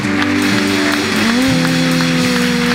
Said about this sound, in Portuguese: E toda a igreja diga glória, a, Deus. Dê uma salva de palmas a Deus, aleluia.